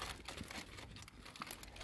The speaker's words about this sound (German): Dann holen wir jetzt den Döner raus. Ja. Du hältst jetzt mal die Tüte. Okay. So, wir packen mal jetzt den Döner aus.